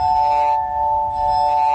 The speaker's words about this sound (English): This is an instrument called the glass harmonica, invented in 1761